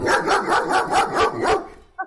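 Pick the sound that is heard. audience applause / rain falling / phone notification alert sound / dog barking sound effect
dog barking sound effect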